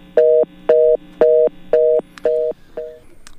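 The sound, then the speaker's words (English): A telephone line tone after a call to a pastor drops during a radio program broadcast from the island of Antigua: six steady two-pitch beeps in an even on-off rhythm, loud, the last one cut short, with no voices. “Sorry, we lost Pastor again on the phone line.”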